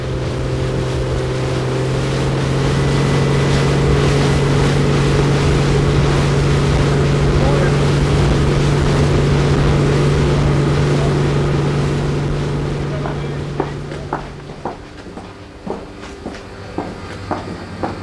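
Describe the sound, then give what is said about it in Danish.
A motorboat engine drones steadily with water rushing and splashing around the hull as biologists travel out to a seaweed farm at sea, then the engine noise fades and a few sharp knocks and clatters follow. “Vi går ombord igen, når biologerne er kommet ud til tangmarken.”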